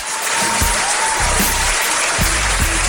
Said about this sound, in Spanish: El aplauso para ustedes. Antes que nada, el aplauso para ustedes.